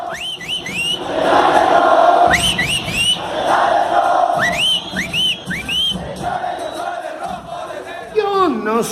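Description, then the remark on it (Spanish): La Perra Brava, the supporters' group of Club Deportivo Toluca, chanting loudly in unison, with repeated rising whistle blasts cutting through the crowd noise in bursts throughout. “Son los integrantes de la perra brava. La porra del Club Deportivo Toluca.”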